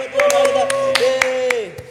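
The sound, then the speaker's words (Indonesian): Scattered hand claps from a small audience, sharp and irregular, ring out over a steady sustained voice or cheer that holds one pitch throughout. “Wow, beri tepuk tangan”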